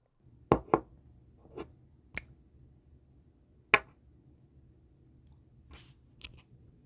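Perfume being sprayed before bed, recorded as ASMR: a few sharp clicks and handling knocks, then several quick, airy spritzes near the end, quiet with no one speaking.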